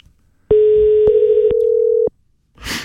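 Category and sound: signal or alarm, telephone ringing tone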